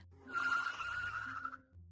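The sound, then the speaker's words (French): A car brakes hard, its tires letting out a loud, sustained screech for over a second before cutting off, followed by the low rumble of the engine. “Parce que la voiture va vite et si elle s'arrête brusquement, tu peux décoller de ton siège et te faire très mal.”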